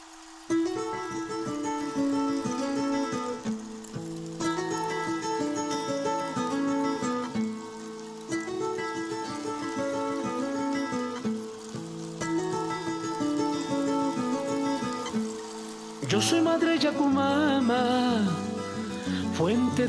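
An instrumental song intro with sustained melodic notes over a steady, pulsing accompaniment, playing close and clear, then swelling into a fuller, louder section near the end.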